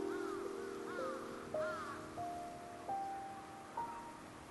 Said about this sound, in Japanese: 夜なのにカラスが鳴いたバタバタと羽を広げる音がした